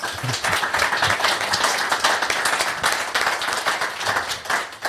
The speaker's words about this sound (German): obwohl das hat eigentlich auch nochmal einen Applaus verdient, finde ich, oder?